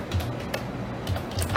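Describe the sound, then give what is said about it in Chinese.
A handful of light, irregular clicks and taps from a computer mouse and keyboard as someone searches for information, sharp and brief, spaced unevenly over a soft steady background with no one speaking. “因为我刚刚正在查，所以你就听到那个滑鼠打字的声音。”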